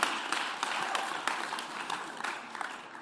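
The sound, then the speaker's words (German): An audience applauds steadily during a talk about applying the Bible, thanking a person who has just spoken, many hands clapping in a dense, continuous patter with occasional sharper claps standing out, holding fairly even in loudness throughout. “Applaus für dich.”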